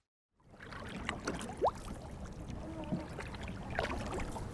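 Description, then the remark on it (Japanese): A small wooden sabani boat setting out onto the sea off Itoman, Japan, in fine weather on calm blue water, with steady splashing and sloshing against the hull, paddle strokes dipping in, and faint creaks, all continuous. “サバニはあえてひっくり返りやすく設計された特殊な船で時には船底に入った水をかき出しながら操作することもあるそうですそんな話をいろいろ聞いた後ではあったんですがとにかく私を乗せたサバには糸満の海へと出港しました”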